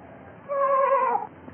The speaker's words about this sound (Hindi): वो ठिटक कर खड़ा हो गया और सुनने लगा फिर आवाज आई तब गड़रिये ने पहचाना कि ये उसी की भेड़ की आवाज है